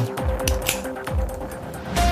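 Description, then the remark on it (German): A shaken can of Dr Pepper soda is cracked open, releasing several sharp bursts of hissing, sputtering fizz over low clunks and handling noise, with no one talking. “Dr. Pepper hier, die mache ich mal aus. Ich glaube, die habe ich geschüttelt.”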